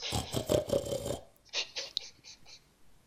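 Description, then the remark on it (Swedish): A person imitates a hungry pig snuffling: a burst of rough, grunting snorts followed by several quicker, breathy sniffs. “Hur låter han när han är jättehungrig?”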